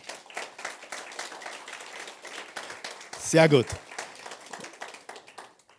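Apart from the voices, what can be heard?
applause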